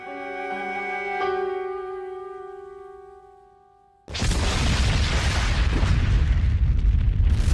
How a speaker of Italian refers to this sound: Dopo un minuto e mezzo sentì un enorme boato. Poi un rombo come di tuono che mi convinse di ciò che avevo visto.